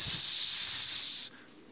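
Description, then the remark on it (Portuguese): A pressure cooker hisses steam in a loud, steady jet for just over a second, then cuts off abruptly into quiet. No one speaks. “E a panela de pressão está.”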